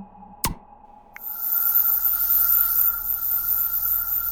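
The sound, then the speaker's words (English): A sci-fi scanner powers up: a steady electronic tone, one sharp blip, then a continuous airy whir with a high hum that holds to the end. The sound is clear, with no voices. “I'll try the scanner.”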